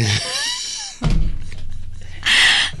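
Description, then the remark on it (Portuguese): Birds chirp briefly, then a window shuts with a solid thunk that cuts the birdsong off, followed a moment later by a short, bright rattling scrape. “Fecha a janela!”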